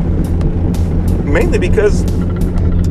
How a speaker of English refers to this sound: all that background noise you hear is uh, that's my truck, um, and it's me driving to work.